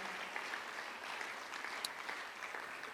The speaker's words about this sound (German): Komm on, wir geben mal dem Dreamteam einen riesen Applaus. Vielen, vielen Dank.